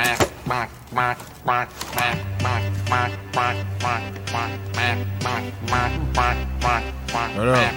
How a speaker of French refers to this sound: Il sort un canard d'un panier qui fait coin-coin, etc.